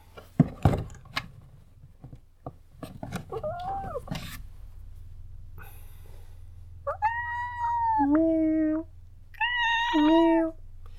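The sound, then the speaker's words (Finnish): A cat at home lets out several long, drawn-out, loud meows and yowling wails after a stretch of knocks and clattering at the start. “Tämä on taas kissatilanne selityskaapissa.”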